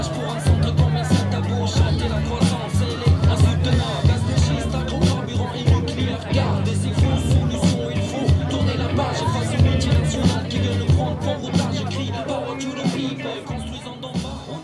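A steady crowd murmur at the climate march of 25 May in Rennes: many overlapping voices blend into a dense, continuous babble that stays fairly loud and even for the whole stretch, with no single voice standing out.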